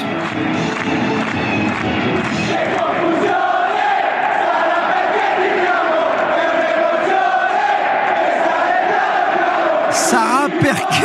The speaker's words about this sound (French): il y a une chanson à Milan que j'adore au Milan AC je sais pas si tu la connais mais ça chante ouais écoute